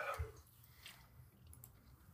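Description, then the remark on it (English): A quick, wet sip of an energy drink near the start, followed by soft, faint mouth and swallowing noises, with no one talking. “Oh man, he's just sipping that like it was a casual drink.”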